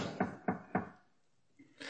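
Three firm knocks in quick, even succession, fairly loud, followed by a short quiet pause and faint shuffling at the end.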